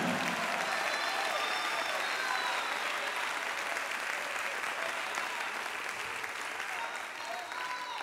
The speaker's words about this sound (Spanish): Si lo crees, dale el mejor aplauso al Señor de tu vida.